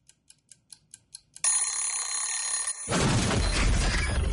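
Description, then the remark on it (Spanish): A clock ticks steadily about seven times, then an alarm clock bursts into a loud, continuous metallic ring that gives way to a harsh, rumbling clatter of noise. “Percibe el sonido del despertador.”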